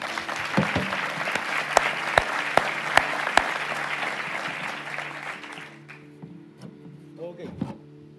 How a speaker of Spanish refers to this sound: Le damos un aplauso a la palabra del Señor.